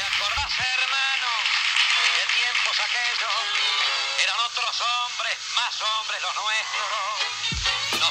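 An old tango recording plays steadily, thin and tinny like a vintage record, with sweeping, wavering melodic lines over a dense, continuous accompaniment and no talking.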